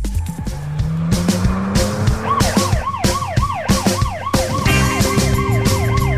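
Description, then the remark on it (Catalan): A musical jingle opens with loud engines revving and wailing sirens, the siren rising and falling in quick repeated sweeps over a driving beat and tire squeals, with no talking. “I ara ja que ja sabeu que aquesta sintonia comença a arrencar amb motors i sirenes és perquè anem a parlar una miqueta d'una entrevista que es va quedar penjada fa dies i amb això acabarem el programa d'avui.”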